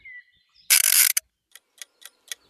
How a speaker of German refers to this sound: der Mann in einem Wissenschaftler-Outfit, zieht eine Eieruhr auf.